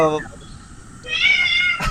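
A cat meows twice in quick succession, a short high cry followed by a longer, drawn-out wavering meow, clear against a quiet background.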